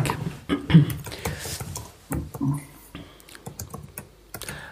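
Rapid, irregular clacking of keys on a computer keyboard while someone quickly looks something up, with short bursts of keystrokes and brief pauses between them. No voices.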